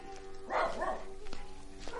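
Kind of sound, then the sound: animal, dog barking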